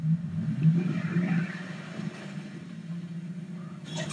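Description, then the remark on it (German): A tuned car engine in the video game Fortnite drones steadily at a low pitch, rumbling and revving slightly as it drives, with a brief rustling burst of higher noise near the end. “Oh nein, ich nehme hier dieses getunte Auto.”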